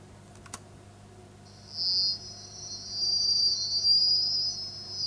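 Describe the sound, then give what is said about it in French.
A thin, high-pitched sizzling crackle in the treble frequency range starts after a brief click and holds steady for a few seconds, gradually growing a bit louder, over a faint low hum with no talking. “Alors les jeunes entendent très bien des petits grésillements dans l'aigu.”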